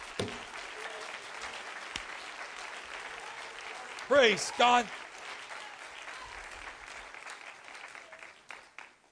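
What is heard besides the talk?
audience clapping hands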